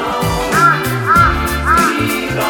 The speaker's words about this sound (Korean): 까마귀 소리도 그만.